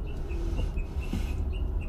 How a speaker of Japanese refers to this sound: また鳥がちょっとうるさい鳥の CD ですね鳥の CD って変な言い方ですね鳥の CD じゃないですねこれデータ音源です SD カードに入ってですね